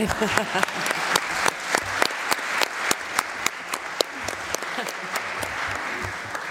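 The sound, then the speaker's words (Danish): An audience claps steadily for the presenters for several seconds, dense overlapping hand claps from many people, moderately loud, with a faint murmur underneath. “Ja, så bliver I nødt til at klappe igen og give alle oplægsholderne en”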